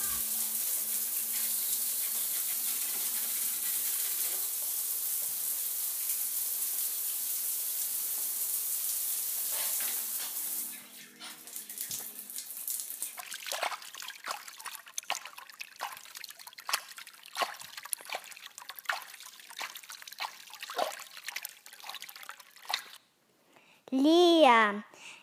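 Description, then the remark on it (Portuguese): Water runs with a steady, hissing rush, then turns to an irregular trickle of drips and small splashes, fairly loud, ending with a brief warbling tone. “digo os sons de água que pedimos no último programa.”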